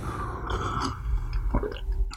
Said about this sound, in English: went out, got some coffee, and now I'm I'm going to enjoy this delicious cup of coffee. A sip right now. One second.